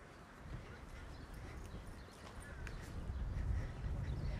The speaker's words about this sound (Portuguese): Onde a gente provavelmente vai ouvir mais pássaros, a gente até já está ouvindo, né? Vamos se esconder aqui no meio das plantinhas, nas árvores.